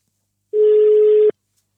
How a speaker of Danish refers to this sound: Derfor ringer vi nu til